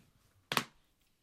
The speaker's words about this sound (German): Ich glaube, du musst mit dem dir auf die Brust klatschen aufhören, weil das hört man, glaube ich, schon auf der Aufnahme.